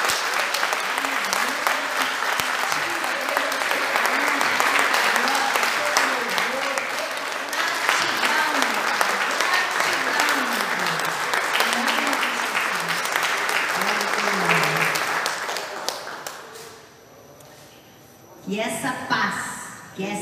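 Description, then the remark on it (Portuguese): An audience breaks into sustained, loud applause for God, dense clapping with voices cheering and talking underneath, fading briefly near the end before a short burst of voices returns. “A esse Deus poderoso, uma salva de palmas.”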